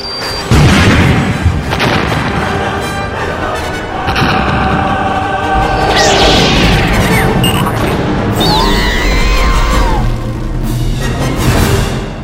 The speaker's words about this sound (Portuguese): E sai rolando um detonador desse e explode tudo.